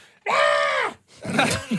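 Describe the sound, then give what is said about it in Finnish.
A person mimics an animal's harsh screeching call, a sustained strained shriek lasting over half a second, followed by a shorter raspy squawk, loud with no words spoken. “rääkyminen, niin sehän on selvä merkki.”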